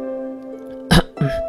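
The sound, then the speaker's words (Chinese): Two short, forced coughs, a sharper burst followed by a rougher throat-clearing sound, over a steady low hum with no speech. “假装咳嗽一声，清了清嗓子，缓解了尴尬。”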